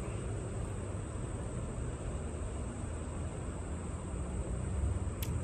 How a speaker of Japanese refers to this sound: これはステレオで録音してるんですがどんな風に聞こえるんでしょうね車の音とか川の水が流れる音とか